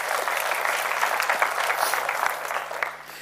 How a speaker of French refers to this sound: Et je veux saluer particulièrement tous ceux qui nous regardent sur Internet. Merci pour votre fidélité. Et est-ce qu'on peut encore applaudir tous nos amis qui sont sur Internet Merci de nous suivre.